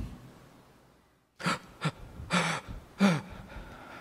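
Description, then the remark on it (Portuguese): Four sharp, breathy gasps in quick succession, fairly loud, after a brief silence, like someone struggling to catch their breath; no talking. “Sabe quando a gente perde a respiração? Foi assim que Jesus chorou por nós.”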